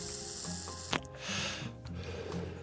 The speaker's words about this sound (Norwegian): Nå damper jeg. Elsigaretter. Jeg røyker ikke, det er farlig. Jeg damper. For da får jeg ikke sot og tjære og kreftfremkallende stoffer i lungene, bare nikotin og damp.